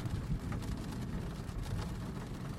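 Steady rain hisses continuously with a deep low rumble underneath, an even, unbroken wash of sound at moderate loudness with no voices.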